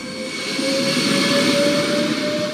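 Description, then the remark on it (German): A hydrogen-powered regional passenger train on Regionalbahn line 15 from Bad Homburg to Waldsolms Brand-Oberndorf in Hessen, Germany, runs steadily. Its continuous rumble is layered with a high electric whine that holds one pitch throughout. No one speaks. “So klingen die neuen Züge der Regionalbahn 15 von Bad Homburg nach Waldsolms Brand-Oberndorf.”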